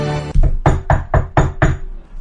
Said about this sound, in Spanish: En el estudio, el maestro desgrana sobre el piano las notas de su nueva ópera, cuando de improviso interrumpe su labor al sentir unos leves golpes en la puerta.